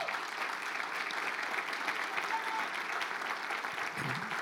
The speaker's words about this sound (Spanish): Gloria a Dios. Dale un más fuerte aplauso al Señor en esta hora.